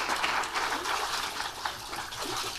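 Water streams and splashes steadily off a person just lifted from a pool after a baptism by immersion, a continuous gush with no one speaking.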